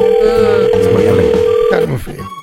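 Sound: telephone ringing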